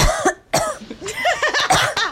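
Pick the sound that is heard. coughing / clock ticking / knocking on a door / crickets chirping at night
coughing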